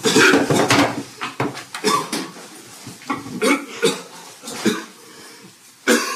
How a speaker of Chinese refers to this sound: 哎，你怎么啦？怎么一直咳嗽啊？不舒服吗？